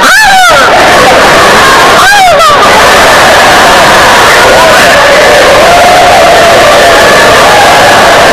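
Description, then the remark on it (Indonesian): Two shrill, falling screams ring out near the start over a dense, roaring crowd, followed by continuous loud shouting and wailing voices throughout. “sehingga untuk mahasiswanya yang tadinya nggak tahu jadi tahu karena teriakan histeris tadi itu”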